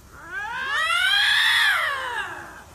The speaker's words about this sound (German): Der Luchs ist die größte Raubkatze Europas. So klingt das übrigens, wenn sich zwei Luchse gegenseitig anfauchen. Es ist kein Witz. Die klingen wirklich genauso. Hört noch mal hin.